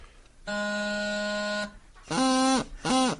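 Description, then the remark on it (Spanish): A junior practice chanter sounds a reedy, duck-like buzzing tone: one long steady note, then two shorter squawking notes that scoop up and drop in pitch, fairly loud with no talking. “Después por eso te trajimos un Chanter Junior. Porque sí, este dame tono.”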